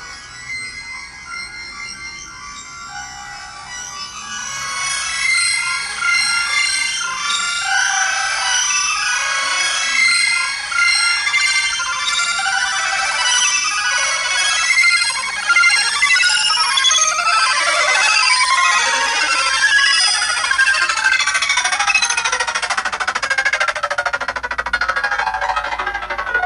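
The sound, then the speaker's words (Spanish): A fragment of an electroacoustic music composition by Meneses, titled Profils e Carteles: dense, glittering high-pitched electronic textures swell and shimmer continuously, building from a quieter start into a bright, busy cascade of chiming tones, with no voices. “Aquí podemos escuchar un fragmento de una composición musical de música electroacústica de Meneses.”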